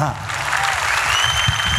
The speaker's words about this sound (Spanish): ¿Cuándo ocurrió esa resurrección? Hace dos mil años atrás. Un aplauso a Jesús.